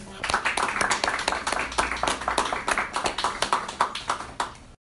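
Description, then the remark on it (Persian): An audience of the Samak audio magazine applauds a woman guest with steady, dense clapping lasting several seconds, many hands overlapping into a continuous patter at an even level before it cuts off abruptly. “تشکر از تک تک شما و خانم عزیز که به ما افتخار دادن تشویقشون”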